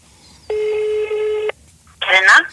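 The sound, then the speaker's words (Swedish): A telephone number is being dialed to call a woman: one steady electronic touch-tone beep rings out clearly for about a second, followed after a short pause by a brief burst of a voice. “Så ringer vi henne.”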